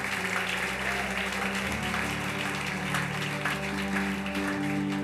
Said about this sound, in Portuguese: Então aplaude Jesus aí. Dá um glória aí.